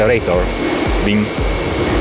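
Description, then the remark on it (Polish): Rhythmic low thumps from capacitors discharging to give protons energy in a particle accelerator hall, repeating about twice a second over a steady, loud mechanical hum, with a faint voice briefly audible. “To, co słyszymy, to takie bicie serca akceleratora.”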